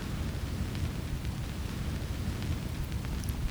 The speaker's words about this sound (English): Well, it's a strong wind outside. Hear that wind? Listen. Can you hear it? And it's raining. Drops from up on heaven.